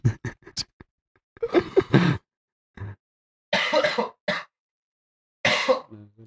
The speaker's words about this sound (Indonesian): Uh, sorry teman-teman, ini eh, benar-benar batuk keras jadi sorry aja kalau ada suara-suara batuk sekali lagi. Gue juga batuk nih.